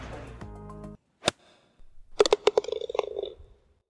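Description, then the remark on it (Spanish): Background hum with a faint tonal murmur in the media room at the Open tournament on the Sunday after it ended, giving way to a sharp click, then a quick flurry of taps and clinks, like typing and small objects knocking together, fading out. “si se escuchaba algo de ruido de fondo es porque estábamos en, la sala de medios del Open y era justo el domingo después de que terminara el torneo”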